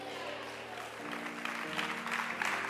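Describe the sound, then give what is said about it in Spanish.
An audience at a Spanish-language church service claps steadily, a dense crackling patter of many hands that swells slightly toward the end, with sustained low musical tones droning underneath. “Aplaudan, no haga tortillas, aleluya.”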